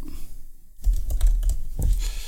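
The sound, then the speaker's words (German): Rapid typing on a computer keyboard, a flurry of crisp key clicks starting after a brief quiet moment and continuing steadily with no voices. “Du kannst, du googelst eh schneller.”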